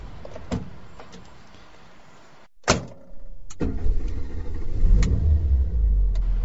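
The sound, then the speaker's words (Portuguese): A car door shuts with a single solid thud after a low idling rumble as someone gets into the car, then the car engine's deep drone swells and grows louder, steady, with no voices. “Entra no carro.”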